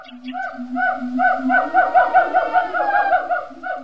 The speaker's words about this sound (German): Auch im asiatischen Urwald verrät der Gesang der Gibbons so einiges über den, der da gerade tönt.